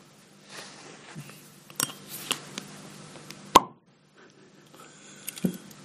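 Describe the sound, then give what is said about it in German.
A few light clicks and rattles of a beer bottle being handled, then one sharp, loud pop as it opens, followed by a soft, faint gurgle of beer being poured. No one speaks. “Du machst ein Einschenkgeräusch hier.”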